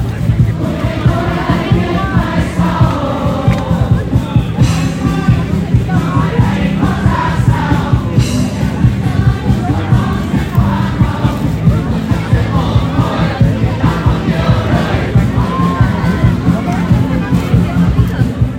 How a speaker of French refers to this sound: de jeunes groupes de pop balancent des tubes locaux repris par la foule en canon